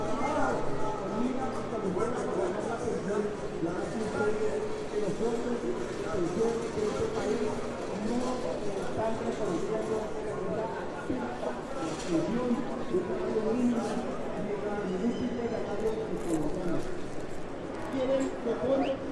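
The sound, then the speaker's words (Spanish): A person speaks continuously at an outdoor union meeting at the door of the Banco de la República in Colombia, the words unclear, carried over a steady wash of open-air crowd and street ambience with faint murmurs throughout. “Hay una reunión sindical en la puerta del Banco de la República. Tal vez alcances a oír a la persona que está hablando.”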